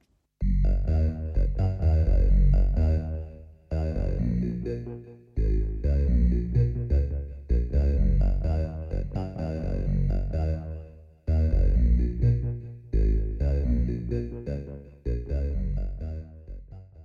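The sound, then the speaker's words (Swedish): A Minimoog synth set with very heavy filter resonance plays loud, sustained phrases whose resonant filter gives the notes a vowel-like, almost singing quality, with brief pauses between phrases and no talking. “Och ställer man in det där alldeles rätt så får man ett väldigt vokalt ljud”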